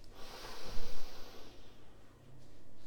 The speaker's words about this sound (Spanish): Entonces, vamos a repetir. Cogemos aire por la nariz,